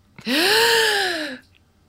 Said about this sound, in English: So I'm going to take an extra obnoxious deep breath in so she has time to press mute. Okay, ready?